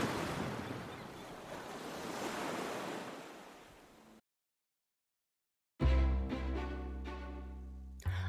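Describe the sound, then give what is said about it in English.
Gigantic ocean swells of Waimea Bay break and wash in a steady roar, the surf swelling and fading for about four seconds before cutting to silence, then a burst of music starts. “spends every second she can practicing her skills and studying the gigantic swells of Waimea Bay, dreaming of the moment when she will surf a big wave.”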